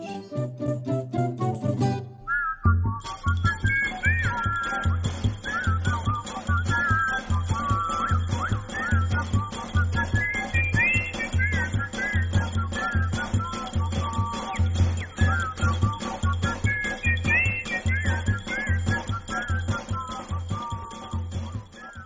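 Instrumental Brazilian music plays steadily, a bright whistled melody gliding and bending above a pulsing bass rhythm, after a brief, different-sounding opening of a couple of seconds.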